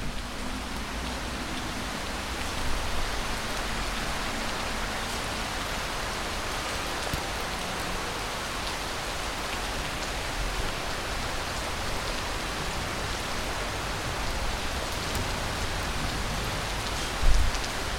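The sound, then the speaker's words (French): Steady rain falls continuously from a grey sky on a Saturday, heard from a balcony, a dense even hiss of drops pattering on surfaces, with a brief louder splash near the end and no voices. “C'est enfin le week-end et il pleut Non mais franchement Je suis sur mon balcon, exaspérée par toute cette eau qui tombe du ciel, le ciel tout gris en plus qui donne aucune chance d'amélioration à la météo”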